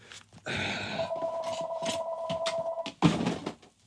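A telephone in a home studio rings with a steady, mid-pitched electronic tone that holds for about two seconds, set against rustling, clattery background noise, followed by a louder thump as it stops.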